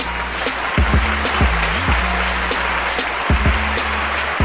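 A steady wash of fans' clapping hands fills the whole stretch, dense and even, with a low humming undertone and a few deep swooping tones running beneath it. No one speaks.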